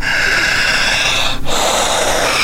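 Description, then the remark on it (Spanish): Loud breathing: a long forceful inhale of rushing air, a brief pause, then a strong exhale, with no talking. “jalar el aire y siga respirando, soltar su espalda, seguridad, empiece a soltar el cuello, relajar su espalda, soltar su espalda, siga respirando fuerte”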